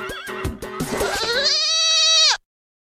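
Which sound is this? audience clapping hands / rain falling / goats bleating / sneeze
goats bleating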